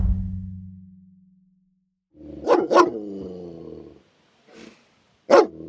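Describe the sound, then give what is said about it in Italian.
A trained explosive-detection dog, used to identify bombs, barks sharply a few times, with a low rumbling growl between barks and a fading low hum at the start. No one speaks. “L'ultimo dispositivo che analizziamo, molto diverso dagli altri, ma spesso molto efficace per identificare una bomba, è il cane antiesplosivo.”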